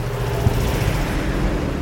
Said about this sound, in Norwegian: Nå kommer flere amerikanske kjøretøy i full fart gjennom de høye portene i leiren.